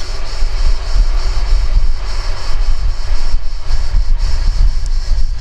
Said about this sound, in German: Es ist kein Schiff, es ist kein Auto, es ist ein Zug.